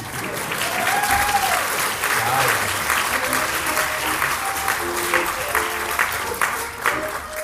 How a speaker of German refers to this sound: Jetzt geben wir den Applaus.